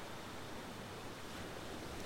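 Ocean waves come and go against the seashore in a soft, steady hiss of surf, continuous and regular in rhythm, with no voices.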